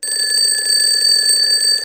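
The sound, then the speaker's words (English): An alarm clock rings continuously with a bright, steady electronic tone, loud, sustained for about two seconds without pause and with no voices. “We ring the doorbell when we go to someone's house, or the ringing of the telephone, or the ringing of the alarm clock in the morning wakes you up.”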